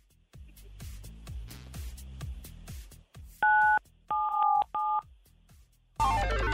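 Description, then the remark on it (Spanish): Three short electronic keypad tones, a phone being dialed with the number 977, beep in quick succession over a rhythmic music bed, followed by a loud burst of sound at the end. “Presiona en tu teléfono, Henry, el 977”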